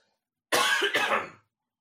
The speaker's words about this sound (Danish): undskyld, jeg hoster lige et øjeblik,